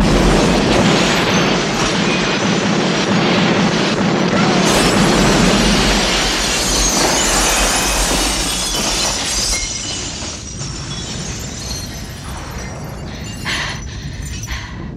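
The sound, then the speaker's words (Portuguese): A loud, roaring explosion from a film dubbed in Italian, a dense wall of crackling, shattering debris noise with heavy low rumble early on that thins into a sustained hiss and clatter. “Ué, uma frase e uma explosão só.”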